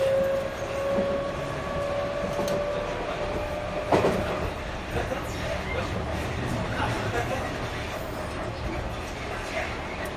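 A JR 221 series electric train running from Nara to JR Namba: a steady, loud rumble and hiss with a high motor whine that fades early on, and a single sharp clunk partway through.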